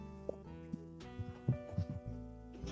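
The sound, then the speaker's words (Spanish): A person thumping their own head: a series of dull, low knocks in an uneven rhythm, clustered mid-clip, fairly soft over a faint steady hum, with no talking. “Soy yo que me estoy pegando en, en la cabeza”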